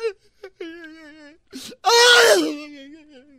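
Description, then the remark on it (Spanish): A voice imitates a woman wailing and crying while telling a joke: wavering sobbing tones, a sharp breathy sob, then a loud drawn-out wail that trails off into a quieter moan, alone. “nada, una mujer estaba llorando.”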